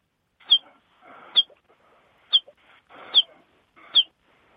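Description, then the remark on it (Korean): A voice imitates a baby chick, making five short, high peeps at a fairly steady pace, each with a slightly breathy, rough sound before it. It is fairly loud, with no other sounds. “예요 그 뼈아리 소리 한번 내보겠습니다.”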